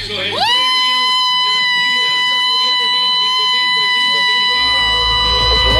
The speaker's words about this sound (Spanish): Isidro Velázquez ahora te lanza su, su último zapucay. ¿Posta lanza el último zapucay?